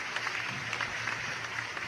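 Steady applause from a group welcoming today's guest, a trainer and nutritionist, a dense rush of overlapping claps holding an even level throughout with no voices over it.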